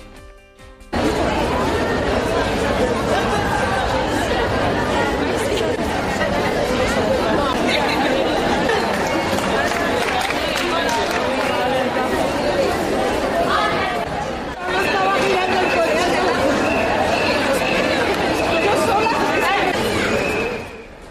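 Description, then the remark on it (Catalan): A large outdoor crowd of about five hundred feminist demonstrators in Tarragona on the evening of International Women's Day, steady dense chatter and shouting filling the air for about twenty seconds, with a brief dip midway before the loud crowd noise resumes. “I això que escolteu és una altra convocatòria. Mig miler de persones s'han manifestat al vespre a Tarragona per reivindicar també la lluita feminista en el Dia Internacional de les Dones.”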